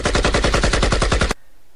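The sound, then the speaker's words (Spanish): A loud, rapid burst of automatic gunfire heard from a home in Juárez, around 25 or more shots in a fast steady rhythm, cutting off abruptly into near silence. No one speaks. “Se escucharon cerca de unas 25 detonaciones o más, güey.”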